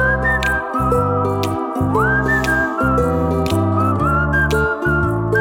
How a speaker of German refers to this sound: Er ist noch nicht unten. Pfeif noch ein bisschen weiter. Jetzt ist er da.